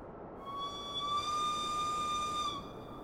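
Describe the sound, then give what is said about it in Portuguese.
A single shrill whistle sounds from the doors of a train cabin, blowing steadily for about two seconds and holding one high, slightly wavering pitch above a constant hiss of background noise before cutting off. “Um novo apito soou das portas da cabine.”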